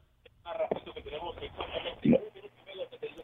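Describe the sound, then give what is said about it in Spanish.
Muffled, narrow-band speech from a listener calling in to a radio phone-in program, with the radio broadcast feeding back and echoing underneath, so voices overlap in a continuous, slightly smeared jumble for about three seconds. “Adelante, por favor, escúchenos por el teléfono, no por la radio.”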